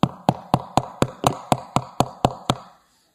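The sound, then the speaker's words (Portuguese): About eleven sharp knocks rap out in a steady, fairly quick rhythm, solid like knuckles on a wooden door, as a speaker knocks to act out a knock at a door, then stop. No voices can be heard. “Versículo 13 batendo Pedro a porta, eu gosto de fazer isso.”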